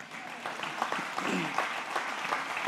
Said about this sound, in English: Come on, you can give God a clap of hands.